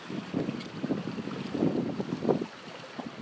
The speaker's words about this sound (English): We're gonna test it out, see how the microphone does all the ambient noise. Waves crashing from the wind blowing. I'm pretty sure you're picking up all the wind. I see it scrattling around the little screen here.